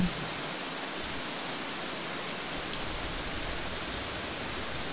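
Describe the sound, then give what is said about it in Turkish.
Steady, dense rainfall pours down continuously in the Amazon, a broad hissing wash of countless drops with no pauses, with no voices present. “Yağmurun sesiyle Amazon sana ulaşsın kalbine.”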